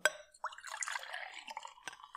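SodaStream sparkling water with raspberry flavour pours from a jug into a glass, a steady splash with bubbly fizzing and a few clinks and drips, quiet with no voices.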